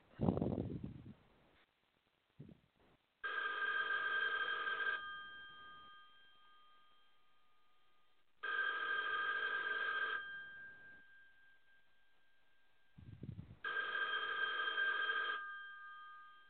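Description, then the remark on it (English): A telephone rings three times, each long electronic trill lasting about two seconds with pauses between, loud, preceded by a couple of soft low thumps. “It means you're another call closer to losing your home to foreclosure.”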